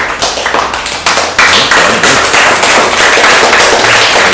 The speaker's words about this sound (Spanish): Un aplauso para Beula, un aplauso también, que lo lleva la mitad para ti.